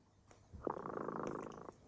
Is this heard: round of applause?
no